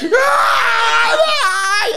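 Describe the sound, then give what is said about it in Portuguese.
A single voice imitates the loud crying of a low-income community: wailing sobs, a sustained high-pitched cry that rises and breaks into shaky, quavering wails, intense for about two seconds. “E tem o choro da comunidade de baixa renda, que foi o meu tipo naquele dia. Eu gritei, eu...”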